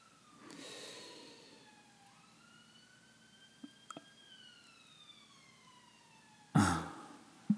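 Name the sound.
siren in the background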